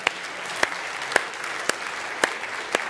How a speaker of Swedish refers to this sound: Jag skulle faktiskt vilja börja med och frågan är om inte vi ska ge hela Kållandsögänget en applåd. Kan vi inte börja där?